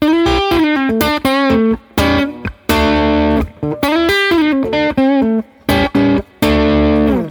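A distorted electric guitar plays a punchy blues rock riff, short chopped phrases with bent notes and brief gaps, loud with no voices.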